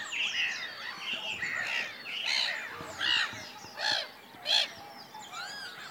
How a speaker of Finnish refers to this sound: Toi meni tosi läheltä toi naurulokki. Niitä on neljä, neljä tässä näin.